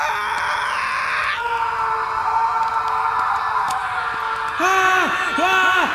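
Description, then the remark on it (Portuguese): Panicked screaming imitated by voice: sustained, overlapping wails with wavering, rising and falling pitch that continue throughout and swell louder near the end. “Você começa a ouvir os gritos de pessoas tipo.”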